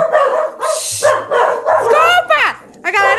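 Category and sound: animal, dogs barking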